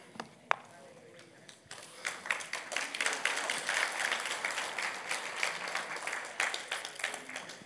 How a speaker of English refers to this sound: y'all going to spoil me, start clapping after the end of my sermon. I'm not that good.